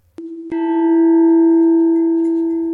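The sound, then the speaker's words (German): A golden bell at a gate rings: a quick first chime, then a stronger strike that sustains as a bright, resonant tone, humming on steadily and fading only slightly by the end. No voices. “Ich danke dir, flüsterte der Junge und umarmte seinen Opa nochmal schnell, bevor auch schon die goldene Glocke am Tor geläutet wurde.”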